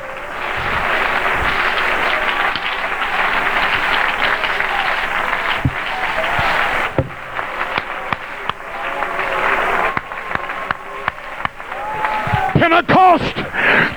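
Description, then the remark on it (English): An audience claps their hands in sustained, dense applause, loud and continuous, with scattered sharp claps and crowd voices rising toward the end. “Oh, clap your hands to him.”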